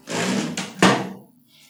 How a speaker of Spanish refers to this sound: cierra la puerta principal despidiendo a la policía.